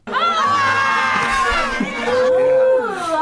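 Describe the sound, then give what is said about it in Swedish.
A crowd of Americans screaming and cheering wildly like crazy at being shown an ordinary house, many high excited voices overlapping in a loud, continuous burst of shrieks and whoops that swells and shifts throughout. “Det här är ett svenskt hus, så bara de skriker. de som galningar.”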